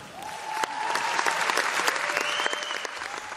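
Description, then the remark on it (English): Loud, sustained applause from a large audience at the Paris climate conference as the climate envoy announces Venezuela will support the agreement: a dense wash of clapping with scattered sharper claps and faint tonal whistles rising through it, with no talking. “And the climate envoy also earned huge applause when she announced that Venezuela would support the agreement.”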